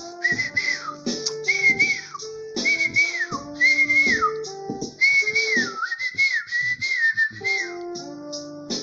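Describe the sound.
A person whistles a bright, chirpy birdsong imitation of sparrows, with repeated rising and falling trills in quick bursts, fairly loud and continuous over several seconds with no talking.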